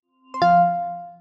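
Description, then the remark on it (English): An iPhone 14 Pro or Pro Max startup chime: one bright, full chord strikes after a brief soft lead-in, then rings out steadily and slowly fades. It is clear, with no voices. “So that's the sound of the startup chime, which is only going to be Your available doom.”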